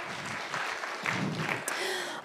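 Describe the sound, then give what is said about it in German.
A small audience claps for a couple of seconds, a dense, steady patter of many hands, with faint voices and a brief cheer mixed in. “Können wir ihr kurz einen Applaus geben?”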